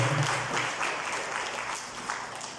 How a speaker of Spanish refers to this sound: Denle un aplauso al Señor, por favor, esta mañana.